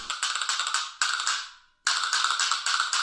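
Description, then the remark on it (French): Rapid, crisp castanet clicks rattle in quick trills, briefly fading into a ringing decay and a short silence before another fast burst of clicking resumes. Fairly loud, with no voices. “Ou des castagnettes.”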